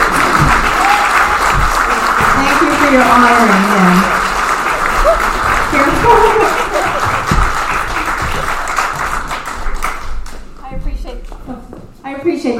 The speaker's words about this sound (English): Thank you all. Please, please honor them and give them applause. They did such a fantastic job. Thank you all so very much.